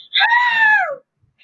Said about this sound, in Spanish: ¿Puedo llorar? ¿Puedo tirarme un grito, like, como si me estuviesen matando? puedes hacerlo.